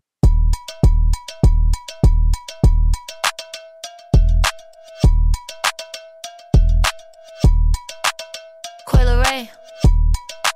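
A music track plays alone with a heavy, booming bass beat hitting in a steady rhythm under a bright, repeating bell-like melody, with a brief swooping synth flourish near the end.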